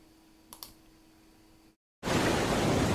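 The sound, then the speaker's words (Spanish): Loud, steady roar of sea waves fills the second half, starting abruptly after a brief silence. Before it there is only a faint hum with a couple of soft clicks. “Al fondo, el mar. Adentro del mar. Constante el mar”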